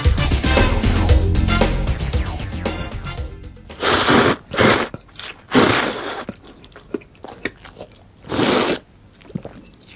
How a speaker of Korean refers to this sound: 네, 아침부터 군침이 도네요. 이거 무슨 소린지 아시겠죠? 라면 먹는 소린데요.